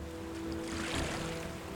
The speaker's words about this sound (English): In stone faced silence, Mr. Cropsey climbed into the vessel. J.D. Stillman used an oar to push off, and the two men made their way toward the other bank of the river.